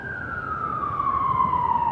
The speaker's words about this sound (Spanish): ¿qué está pasando ya? Nada. No, una ambulancia.